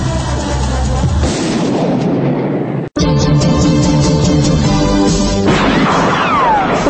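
Loud, dense gunfire rattles almost nonstop with heavy booming blasts mixed in, cutting out for a split second midway before the barrage resumes just as intensely. No one speaks.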